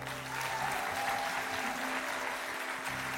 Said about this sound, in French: On les applaudit aussi, s'il vous plaît.